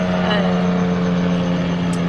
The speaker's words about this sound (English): let the helicopter go over this fly path.